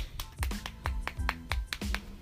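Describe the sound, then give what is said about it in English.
Hands slap against thighs about ten times in a quick, fairly steady rhythm, each hit a soft, dull thump with a sharper smack on top, with no talking. “Look, I'm gonna clap my thighs for you.”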